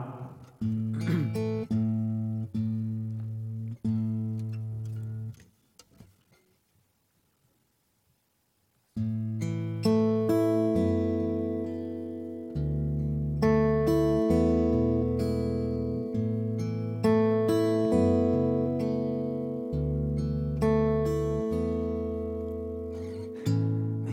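A live band's instrumental intro: sustained, held notes with a low repeating bass line, a brief near-silent pause, then a fuller, louder ensemble swelling back in. No one speaks.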